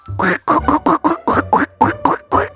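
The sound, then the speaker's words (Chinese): A duck quacks about ten times in a quick, steady run of loud, nasal, buzzy calls, each short honk separated by brief gaps, with no talking. “妈妈不想回答的时候，妈妈就会自动变成鸭子，哎，只回答我。”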